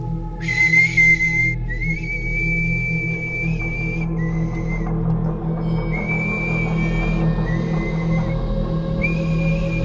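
A clear, steady high-pitched whistle, heard coming from within fog, sounds in several sustained stretches of a second or more, a short whistle followed by a long one, separated by brief gaps, over a constant low rumble, with no one speaking.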